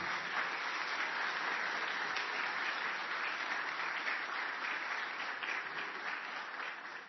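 An audience applauds steadily for several seconds, a dense, even wash of many hands clapping at once with no voices on top, tapering slightly at the end.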